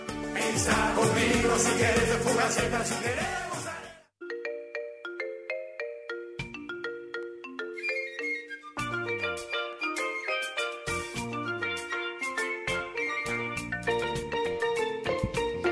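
Short radio bumper music: a dense, loud burst of music cuts off, then a bright, chiming synth melody picks up with a bouncing bass line and steady rhythm, no voices.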